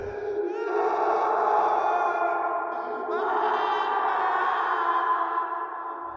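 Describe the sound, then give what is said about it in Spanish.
A loud, drawn-out scream rings out, sustained for several seconds with a brief catch of breath midway before continuing, shrill and unbroken, with no talking around it. “Cuando estaba listo para salir del baño, el ruido de risas y juego se detuvo en seco por un grito aterrador.”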